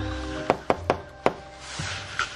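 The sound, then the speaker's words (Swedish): Four firm knocks on an apartment door: three in quick succession, then a short pause before a fourth, over a steady low background hum. “Vi knackar på.”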